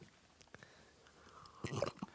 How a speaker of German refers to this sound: Er ist ein Schlürfer!